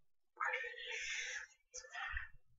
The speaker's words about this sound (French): Euh, je regarde le chat qui s'emballe.